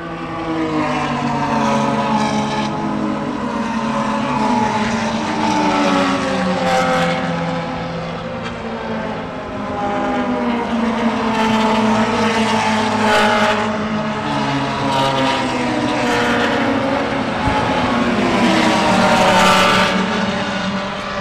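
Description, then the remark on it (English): Race cars roar past on the track at Heartland during lap two of a race, their high-revving engines whining loudly and continuously, swelling and fading as several cars go by in close succession. No one speaks. “As soon as these cars go by, I'm going to ask you about what happened and how that made you feel emotionally.”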